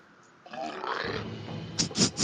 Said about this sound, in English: Is that beer burp